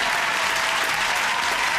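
A steady burst of applause from many hands, dense and even throughout, with no voices standing out above the clapping.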